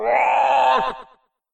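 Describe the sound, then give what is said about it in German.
A voice lets out a loud, drawn-out croaking groan, imitating a toad screaming out after being hit, holding steady for about a second before breaking off abruptly into silence. “Die schreit laut auf.”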